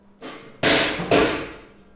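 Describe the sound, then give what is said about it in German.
In a lab, a drop hammer lets a 2 kg weight fall from a set height onto a small explosive sample, striking twice in quick succession, each a sharp, loud metallic impact with a ringing decay, preceded by a softer scraping rush. No one speaks. “Wir lassen ein definiertes Gewicht, in dem Fall 2 Kilo, von einer bestimmten Höhe fallen.”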